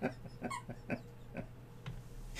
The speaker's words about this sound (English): Jack has a squeak toy. You'll be hearing him uh, sort of uh, play an accompaniment or you know a theme song to this video.